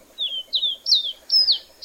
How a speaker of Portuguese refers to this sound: e hoje estou falando aqui do sul de Minas Gerais, de Pouso Alegre para falar de uma espécie muito especial que uma vez por ano passa por aqui e faz a alegria dos observadores de aves. Eu estou falando do caboclinho, que tem esse canto.